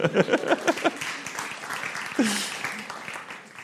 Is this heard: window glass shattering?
no